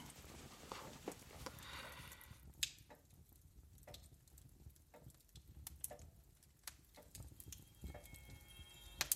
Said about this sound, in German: Ich hab nix gehört. Bloß die Glock tickt.